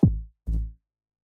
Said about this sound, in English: The 808 should sound like this.